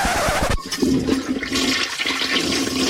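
A toilet flushes: a sharp clunk of the handle, then a loud, steady rush and gurgle of swirling water filling the whole few seconds, with no voices.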